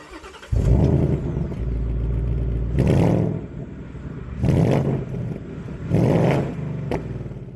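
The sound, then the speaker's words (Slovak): A Ford car engine, started by remote start, fires up and idles with a deep rumble, then revs loudly in three sharp bursts set off by pressing the remote button, each rising and falling back to idle, with no talking. “Motor sa ozve ľahkým burácaním, No a ak máte pocit, že ste ešte susedov nezabudili alebo nevytočili do správnych susedských otáčok, môžete motor s tlačením tlačidla poprosiť, aby sa predviedol silnejšie.”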